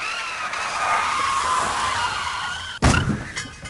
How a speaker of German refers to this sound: Bedeutet zum Beispiel, wenn wir jetzt mit einem Auto über die Straße heizen, nach rechts driften, dann hört sich das im Delivery-Spiel eher so an.